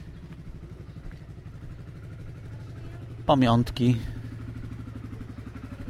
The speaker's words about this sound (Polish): O, ten jest fajny motorek. Triumph. Traxton 900. Świetny. Pierwszy raz taki widzę.